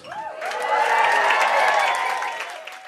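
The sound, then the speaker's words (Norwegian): An audience of celebrities claps and cheers loudly and steadily for a few seconds as Kygo enters the catwalk at the Kygo Design clothing collection launch in Oslo, with excited voices rising above a dense wash of applause that fades slightly at the end. “Sånn høres det ut når Kygo entrer catwalken i Oslo.”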